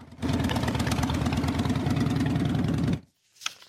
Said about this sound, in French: Malgré tout, ces motards nous l'assurent ils continueront de faire vrombir leur moteur contre le harcèlement scolaire.